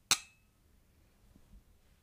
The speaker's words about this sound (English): i just clinked my glass with the bottle